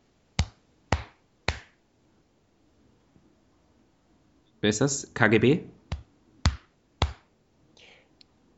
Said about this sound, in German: Ich klopfe mir selbst auf die Schulter. Ach so. Wow, du hast aber eine ganz schön kräftige Schulter. Mach nochmal. Wow, das hört sich an, als würdest du mit einem Tennisschläger auf eine Rinderhälfte klopfen.